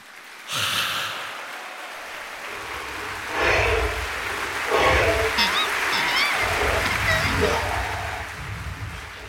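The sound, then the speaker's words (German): Applause for the dragon bowing at the curtain call on an opera stage in the opera Die Zauberflöte breaks out abruptly and keeps going as a dense, steady wash of clapping, swelling a little midway, with a few brief high vocal whoops rising above it. “Applaus für den Drachen auf der Opernbühne.”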